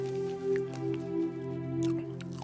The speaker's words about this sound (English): oh, that's juicy. I wish y'all had like smell of vision or taste of vision. I mean, mm, that juice just dripping out.